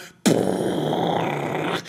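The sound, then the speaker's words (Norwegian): A voice imitates a big explosion: a sudden loud, rumbling burst that holds as a rough, noisy roar for about a second and a half before cutting off. “Stor bombe.”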